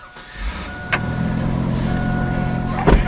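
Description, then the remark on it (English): A pickup truck's engine hums low and steady from inside the cab while power windows whir, with two sharp clunks about two seconds apart, during a drive through the Alazan Apache Courts, a public housing complex on San Antonio's west side. The truck is worn. No one speaks. “much loved pickup truck is a little worse for the wear.”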